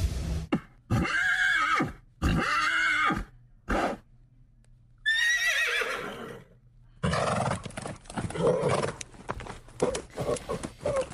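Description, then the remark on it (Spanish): A horse neighs and whinnies loudly several times in close succession, the calls rising and falling, followed by snorting, restless breathing and shuffling noises; the horse is aboard a Boeing Jumbo jet that has just taken off from JFK airport in New York bound for Belgium. “¿Ustedes qué pensarían si yo les dijera que un caballo se, eh, pues, despegando en, un, avión en Nueva York, con un Boeing Jumbo, acababa de despegar del John F.”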